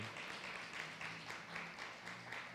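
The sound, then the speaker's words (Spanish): An audience applauds for God: dense, continuous clapping that fills the whole stretch, swelling and easing slightly in waves, with a faint low steady tone humming underneath. “Denle un aplauso a Dios, mi hermano.”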